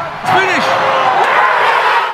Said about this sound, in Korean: 90분 경기만큼 피말리던 8분의 기다림은 관중들의 우레와 같은 함성 속에